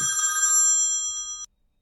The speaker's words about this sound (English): Phone ringing!